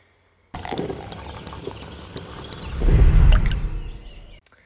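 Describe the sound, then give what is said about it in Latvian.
Liquid pours into a glass in a steady, gurgling stream for about four seconds, swelling to a fuller, louder rush near the end before stopping abruptly. No voices are heard. “Un te jūs dzirdēsiet to smuko to kā līsti.”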